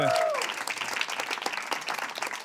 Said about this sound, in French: Bonne main d'applaudissement à Louis qui fait ça comme un chef!